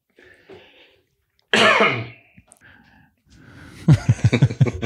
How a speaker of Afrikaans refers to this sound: Dis wat hierdie hoeskie aan my doen.